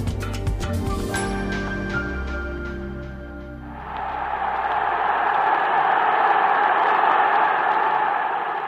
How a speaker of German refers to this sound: Brodelnde Menschenmassen, endloser Jubel.